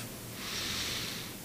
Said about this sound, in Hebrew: נשימה עמוקה מהאף. ונוציא מהפה.